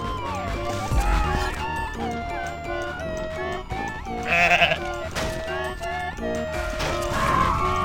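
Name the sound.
goat bleating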